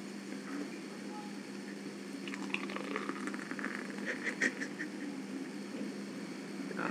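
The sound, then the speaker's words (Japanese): A second bottle of drink is poured, followed by a soft, steady fizzing crackle of foam with small popping bursts rising over a low background hum; no one speaks. “ああいい泡の音でした”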